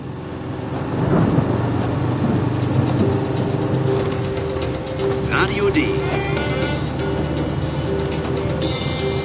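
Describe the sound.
A car drives through heavy rain and a storm, a steady wash of rain noise over a low engine rumble with mechanical rattling, and a voice briefly speaks over it.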